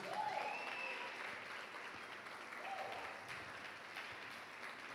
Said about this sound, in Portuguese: Queria pedir que vocês dessem um aplauso ao Senhor em nome de Jesus.